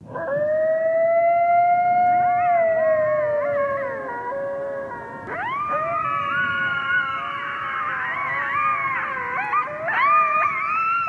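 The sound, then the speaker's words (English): A pack of coyotes howls together at night in long, wavering, overlapping cries, some voices rising and yipping higher partway through, sustained and fairly loud with no talking. “This is a pack of coyotes howling at night.”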